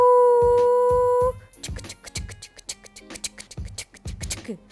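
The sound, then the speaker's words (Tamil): A voice gives a loud, drawn-out "koo" imitating a train whistle, held steady for about a second, then cuts off into a run of rhythmic chugging thumps. “அந்த ஊரில் தினம் காத்தாலையும் சாயந்தரமும் ஒரு ட்ரெயின் போகும் ட்ரெயின்லாம் பார்த்துருக்கல இல்லையா நீங்கள் ட்ரெயின் எப்படி சத்தம் போடும் கூ”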